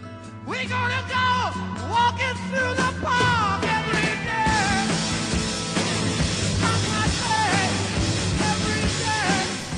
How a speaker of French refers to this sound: C'est mélodieux mais brutal, c'est rock.